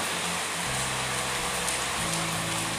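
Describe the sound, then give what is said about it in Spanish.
Steady rain falls in a dense, continuous hiss, with a low hum underneath and no voices, a constant even wash of drops. “Entonces te voy a dar un tiempo para que el sonido de esta lluvia que está acá puedas ordenar tu espacio, tu tranquilidad, quedar en un ambiente tranquilo, a gusto para que enseguida empecemos algo increíble.”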